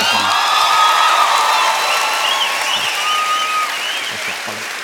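An audience claps loudly and steadily for several seconds, a dense wash of hand claps with a few high cheers and whoops mixed in, tapering slightly toward the end.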